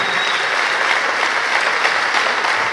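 An audience applauds steadily, a dense, even wash of many hands clapping at a consistent loudness throughout, with no voices standing out.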